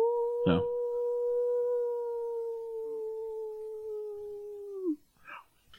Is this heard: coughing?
no